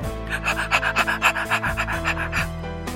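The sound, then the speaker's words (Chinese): A puppy named Hutou pants in quick, breathy bursts, roughly a dozen steady huffs in a fast rhythm, heard over soft, sustained background music with no one talking. “这就是奶奶送我的小狗，它叫虎头。”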